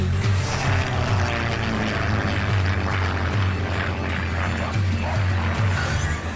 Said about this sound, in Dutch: Het was losalarm. Het was een Nederlands vliegtuig.